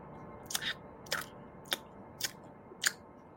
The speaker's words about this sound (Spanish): Ves como esos seres se lanzan y empiezan a destrozarlo, a desgarrarlo, a romperlo en mil pedazos. Ves cómo se introducen partes del cuerpo de ese hombre en sus rostros y cómo lo mastican.